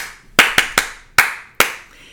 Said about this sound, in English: and then say, okay, clap the rhythm instead. Let's do what's the song? I love to see the temple. Okay. I love to see the temple. Clap instead.